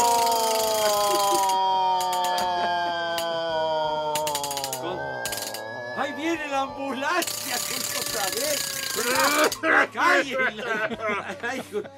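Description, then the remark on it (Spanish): A hand-spun wooden ratchet noisemaker (matraca) clatters in rapid, rattling bursts that come and go, mixed in with loud, animated voices and tonal calls. “Con matraca y todo, Chihuahua.”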